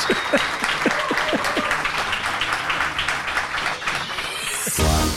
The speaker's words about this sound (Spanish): Incluso aplausos.